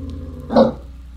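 One short, sharp dog bark rings out from the back seat of a car, loud against a low, steady background hum, then fades quickly with no voices around it.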